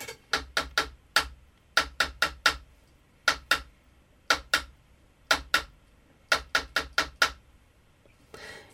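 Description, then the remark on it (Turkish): Sharp hand taps beat out the rhythm of a poem's words in short clustered groups with brief pauses between, each tap crisp, repeating a pattern over several bars with no talking. “Bir daha ritmi vuruyorum.”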